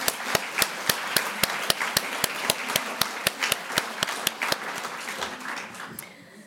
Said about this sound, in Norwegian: Romanen ble tildelt Brageprisen og er nominert til Bokhandlerprisen, Kritikerprisen, Ungdommens kritikerpris og Nordisk råds litteraturpris. En liten applaus for det.